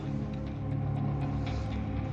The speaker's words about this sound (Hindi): कोई प्राइवेट गाड़ी वाला सवारियां भर रहा था मैंने उसे अपने गांव का नाम बताया तो उसने कहा बैठिए रास्ते में ही पड़ेगा आपका गांव स्टेशन से और दो लोगों को गाड़ी में बिठाकर उसने गाड़ी शुरू कर दी